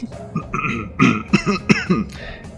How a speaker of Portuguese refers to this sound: De novo, daquela tossida lá no fundo.